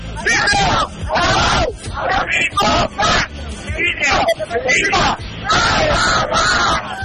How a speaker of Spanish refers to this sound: vamos a hacer una porra bien fuerte para nuestros amigos de línea deportiva